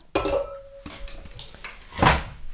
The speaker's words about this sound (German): Jetzt mach erst mal kurz hier die Eiswürfel gedöns. Zwei pro Glas. Zwei pro Glas